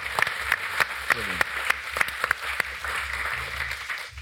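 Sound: audience applause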